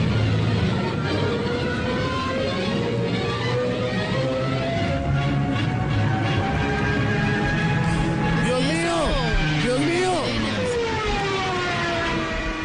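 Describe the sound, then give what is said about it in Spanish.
A diving World War II warplane's siren, fitted by engineers on Hitler's order to frighten people, wails loudly and continuously over a roaring engine, its pitch sliding and swooping up and down toward the end. “Eso que escuchan es un avión de la Segunda Guerra Mundial y le habían colocado, por orden de Hitler, le pusieron los ingenieros un parlante y sonaba con una sirena para asustar a la gente.”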